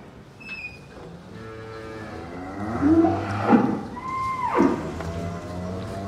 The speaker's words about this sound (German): Die Geräusche sind mir vertraut. Eisen scheppert, Kühe kauen, schnaufen, koten, pinkeln, muhen.